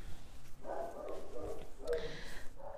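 A female dog gives two drawn-out, whiny barks in quick succession, moderately loud, with no one talking over them.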